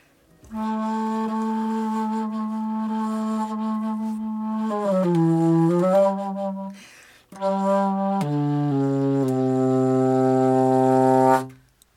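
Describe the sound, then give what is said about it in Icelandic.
A bass flute plays deep, breathy sustained notes: one long low tone, a short wavering passage, then after a brief pause a few stepped notes that settle lower, with no voices. “Sem að kallast bassaflauta.”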